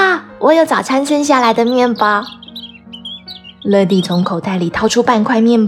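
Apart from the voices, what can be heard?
sparrows chirping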